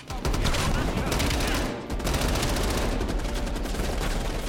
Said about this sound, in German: Der Sound hingegen ist bombastisch wie eh und je. Satte Waffensounds mischen sich mit wuchtigen Explosionen und der Soundtrack kann sich durch die zeitgenössische Musik gut hören lassen.